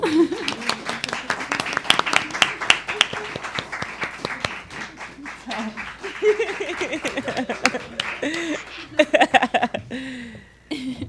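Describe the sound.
A crowd applauds with steady, dense clapping that continues for several seconds, while voices chatter and call out over it, and the clapping thins toward the end.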